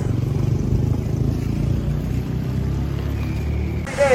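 Motorcycle taxi tuk-tuks drive past in Iquitos, their engines making a loud, steady low rumble and drone that fills the street, with no one speaking.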